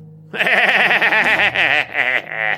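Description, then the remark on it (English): A voice imitates a manic, goat-like bleating laugh: a loud, quavering run of stuttering bleats lasting a couple of seconds, with no other sounds around it. “And he lets out this weird, maniacal, yet goat like laugh.”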